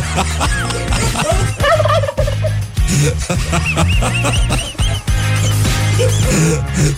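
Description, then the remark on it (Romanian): A flock of wild turkeys in a town in the USA gobble loudly, their warbling calls overlapping in bursts that keep going from start to finish with hardly a pause. “vreau să vă povestim despre orașul ăsta din SUA, în care curcani, un câr de curcani sălbatici fac mizerie și produc pag- pagube în grădin și, uh, practic, uh, um, umblă în haide.”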